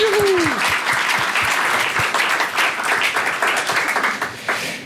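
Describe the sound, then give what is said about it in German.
At a live recording, the audience breaks into sustained, dense applause for itself, many hands clapping steadily at full volume for the whole stretch, with a brief rising-and-falling whoop at the very start. “Und ähm, deswegen auch bitte nochmal Applaus für euch selbst.”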